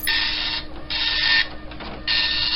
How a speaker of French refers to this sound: L'impression matricielle, des petites aiguilles frappant un ruban encreur dans un raffut infernal.